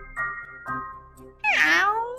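Two soft, short mews are followed by one loud, bright meow that rises sharply in pitch and then slides down as it trails off, with no talking around it. The meow comes from the character Kalemi, Dr. M's assistant.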